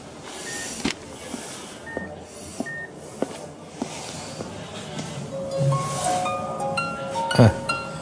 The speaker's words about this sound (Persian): نه من دوباره شمارش بگیرم